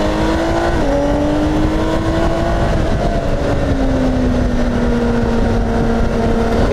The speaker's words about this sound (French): et je vous fais écouter un peu le six cylindres.